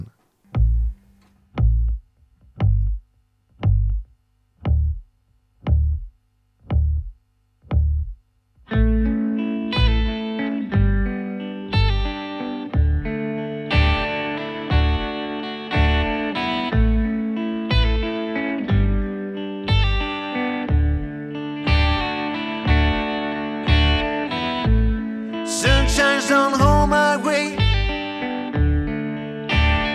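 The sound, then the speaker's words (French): A blues band song plays, opening with about eight seconds of steady, evenly spaced bass drum thumps alone before distorted guitars and the full band crash in, loud and driving. “on va les retrouver tout de suite dans un, un des titres qui nous a vraiment plu euh, lorsque nous avons eu la chance de les écouter.”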